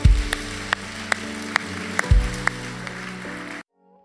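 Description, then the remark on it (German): Audience applause for the people who decided today for a life with Jesus, a dense wash of clapping with sharp, evenly spaced accents as if some hands clap in rhythm, over a low sustained musical tone, cutting off abruptly near the end. “Lass uns nochmal einen großen Applaus geben an die Leute, die sich heute entschieden haben.”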